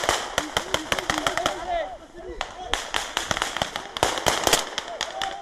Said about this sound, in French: Je euh, rappelle que c'est un exercice. Ne prenez pas peur en entendant les coups de feu. Ici, rien n'est réellement dangereux.